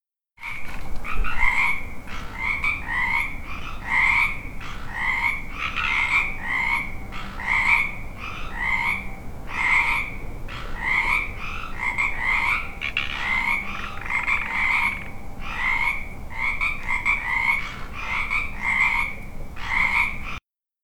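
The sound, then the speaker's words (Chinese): Frogs at a pond croaking in a steady, rapid chorus, their raspy calls repeating several times a second at a fairly loud, even level for the whole stretch, with no voices. “听，青蛙在呱呱叫。”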